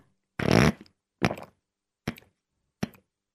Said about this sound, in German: Jetzt habe ich mal einen Schluck Wasser nehmen müssen.